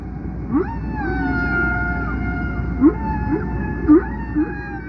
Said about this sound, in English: You can imagine a five or six year old listening to these haunting sounds of a humpback whale singing.